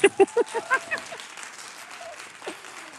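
A burst of audience applause welcoming guests as they are introduced, with several sharp claps up front quickly dissolving into a steady patter that fades over a few seconds, with faint voices underneath.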